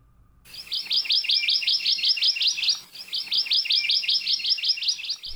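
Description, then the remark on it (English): A Hawaii amakihi, a Hawaiian honeycreeper, sings in an ohia forest on the Big Island of Hawaii: a fast, even trill of bright repeated notes, clear, in two long bursts separated by a brief pause, with no other sounds around it. “In ohia forests all over the Big Island, you can hear the song of the Hawaii Amakihi.”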